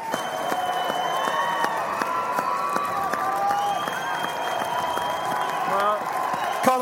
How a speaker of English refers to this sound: And they are cheering the Connacht fans who are in here in very big numbers. There must be maybe four or 500, I would say, around here.